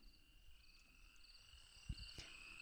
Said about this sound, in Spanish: pues cierra la ventana porque se va a escuchar. los grillos, los grillos.